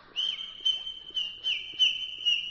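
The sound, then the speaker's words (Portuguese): A small bird's song, or a whistled imitation of one: a steady, high, clear tone with a fresh chirp-like accent roughly every half second, alone without any talking. “E o passarinho cantar.”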